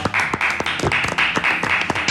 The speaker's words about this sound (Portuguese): Uma, uma nada mais, nada menos que Juca Kifuri. Uma salva de palmas, de... uma salva de palmas pra honra.